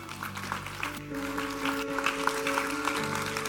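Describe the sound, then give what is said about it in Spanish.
An audience claps steadily in a dense, continuous wash of applause, with sustained keyboard or organ notes holding underneath throughout. “Con razón la Biblia dice, si va a aplaudir, hágalo fuerte.”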